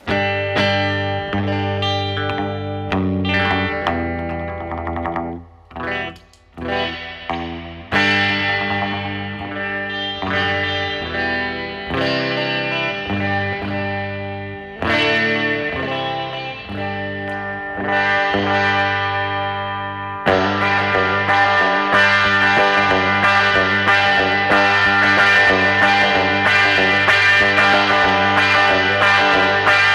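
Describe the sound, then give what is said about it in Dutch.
An electric guitar with a Lake Placid Blue finish, played through an effects unit, with thick, sustained, distorted chords ringing out loud. Brief pauses break the playing early on, then the tone grows denser and brighter near the end. “Het is een soort Lake Placid Blue. Dat het klinkt heel erg authentiek. Heel 50s.”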